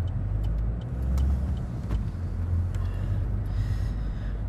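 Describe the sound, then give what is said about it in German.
Steady low rumble of a car in motion, heard from inside the cabin, with constant road and engine drone and a few faint clicks and ticks on top, no voices. “Ja, äh, und jetzt eben auch der Grund, warum ich jetzt überhaupt mit dem Auto unterwegs bin.”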